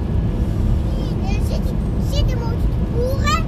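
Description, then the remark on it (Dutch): A car engine drones steadily from inside the moving vehicle as it drives on the N322 road, the engine revving, a loud continuous low rumble, with faint high voices briefly audible over it. “Nee, de motor maakt toeren.”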